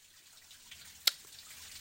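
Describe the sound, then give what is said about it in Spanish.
A single crisp drop of water lands partway through, a sharp isolated plink against a soft, steady hiss of running or trickling water in the background. No voices. “y que seguimos con este sonido de agua.”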